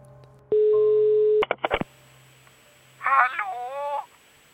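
Telephone line tones of an outgoing call to a former secondary-school teacher in Sweden: a steady tone for about a second, a quick run of dialing beeps, then a short stretch of a voice on the line after a pause.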